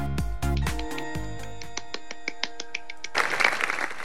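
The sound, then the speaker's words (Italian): Applause breaks out near the end as a dense, crackling patter of many hands clapping, following about three seconds of repeated plucked musical notes with a steady rhythm. “Partito l'applauso.”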